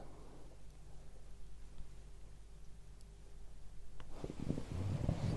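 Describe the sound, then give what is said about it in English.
A male pet sneezes, a sharp burst followed by a few short, rough snorts over a steady low hum, with no talking. “I don't like it when he sneezes like that.”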